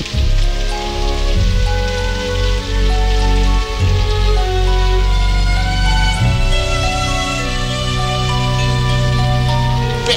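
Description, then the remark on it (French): Heavy rain pours down steadily and loudly for the whole stretch, a dense unbroken wash with sustained tones humming underneath. “personne n'a prévu un parapluie, c'est quand même fort. Ben oui, mais maintenant elle va attraper une saucée avec moi, on pourra pas tourner, il faudra nous sécher, ça va durer jusqu'à demain.”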